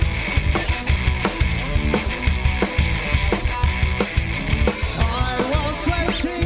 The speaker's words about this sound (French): C'est quoi cette interlude musicale